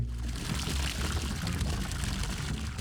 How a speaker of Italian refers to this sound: quando l'acqua si muove rapidamente in uno spazio ristretto, produce un rumore simile a quello del motore di un jet o di un treno merci. Se senti un rumore forte e prolungato, l'inondazione è imminente.